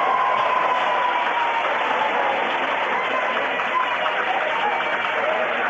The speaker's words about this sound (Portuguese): Aplausos da plateia, hein?